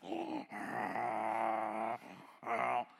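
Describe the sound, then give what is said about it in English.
A voice imitates snoring with three loud, rasping, groaning breaths: a short one, a long drawn-out one, then another short one after a brief pause. “Even when I'm sleeping, I'm not praying, I'm sleeping, snoring.”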